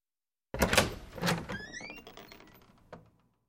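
A front door is yanked open quickly: a sharp rattling clatter of the latch, a brief squeal of hinges, then a fading rumble and one final knock, fairly loud with no voices.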